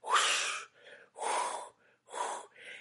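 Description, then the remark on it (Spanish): A voice imitates the pulsing, whooshing murmur of blood flowing through the aorta near the uterus: three loud, breathy rushes, each followed by a softer, shorter whoosh, in a steady rhythm with no words. “No, porque cerca del útero pasa la horta, haciendo un murmullo como un ruido fuerte así.”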